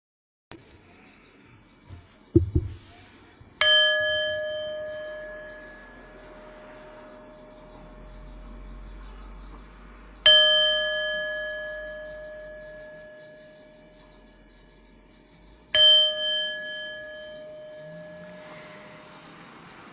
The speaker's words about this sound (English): I will ring the bells when it is time to come out of the practice.